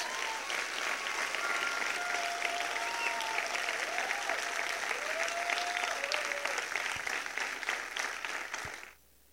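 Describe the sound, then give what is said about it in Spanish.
A large crowd applauds Jesus loudly and steadily, a dense wash of clapping that holds for several seconds before cutting off abruptly, with faint tonal sounds drifting underneath. “Si vas a aplaudir, apláudele bien, fuerte a Jesús.”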